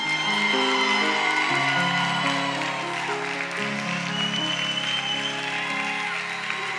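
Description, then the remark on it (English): An audience at Restoration Life claps and cheers steadily over sustained music chords, welcoming the new directors and leaders of Restoration Life Young Adults, the applause loud and continuous for several seconds, with no one speaking. “And so, as of today, being the new Restoration Life young adults leaders, why don't you all stand to your feet and welcome the new directors and leaders of Restoration Life Young Adults”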